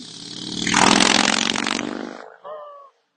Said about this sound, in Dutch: Ik kwam even de motor voorbij, sorry.